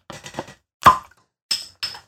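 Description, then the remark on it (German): A beer bottle opens with a few small clicks, then a sharp pop, followed by two short hissing bursts of released fizz. No one speaks. “Ich habe schon längst offen bei mir.”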